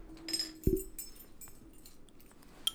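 A glass bottle of cider is opened with a sharp pop of the cap, surrounded by light clinking of glass and a faint background hum, then another small click near the end.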